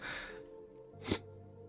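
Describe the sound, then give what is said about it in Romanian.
A single short, sharp sneeze bursts out about a second in, fairly loud against a quiet background, preceded by a soft breathy intake. “noroc, noroc.”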